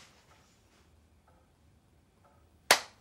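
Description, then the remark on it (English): One sharp hand clap, given as a signal during a game of hide and seek in a house, rings out near the end, loud and crisp with a quick decay, after a stretch of quiet background with a couple of faint, brief sounds. “Okay, clap.”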